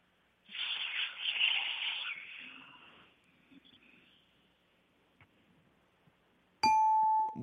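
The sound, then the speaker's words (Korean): A person vocally imitates the air-escaping hiss of an airplane taking off, a breathy, hissing rush of air that swells and fades over a few seconds, followed shortly by a bright, sustained electronic ding. “아 비행기가 이륙할 때 나는 그 김 빠지는 소리 있지 않습니까?”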